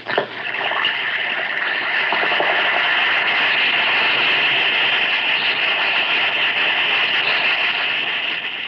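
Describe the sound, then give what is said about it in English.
An Alka Seltzer effervescent antacid tablet drops into water with a brief plop, then fizzes in a steady, dense crackling hiss that holds at an even level for about eight seconds, with no voices. “Listen to it fizz.”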